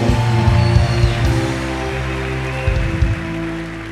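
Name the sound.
audience applause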